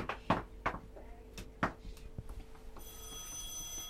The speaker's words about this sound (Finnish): Jaa, puhelin soi, täytyy mennä vastaan. Äkkiä, joo. Kukahan se on?